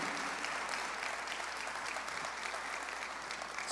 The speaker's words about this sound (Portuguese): Quantos têm aqui esta liberdade de aplaudir ao Senhor? Faça isso em nome de Jesus. Aleluia!